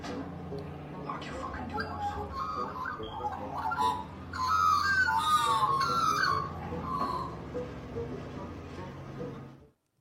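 Magpies outside a window making territorial calls at an owl to scare it away, calling insistently in a warbling, squawking chorus that swells into a louder, harsher burst midway before settling back, over a steady low background hum.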